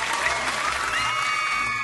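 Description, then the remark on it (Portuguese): A steady round of applause, dense crackling claps filling the whole clip at an even, fairly loud level, with a faint murmur of voices underneath. “Uma salva de palmas aí”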